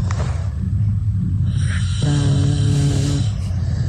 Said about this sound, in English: he has turned into a snorer and he needs to do something about it